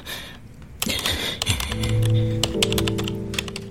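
Rapid typing on a computer keyboard, a steady clatter of individual key clicks throughout, with a low sustained tone humming underneath partway through.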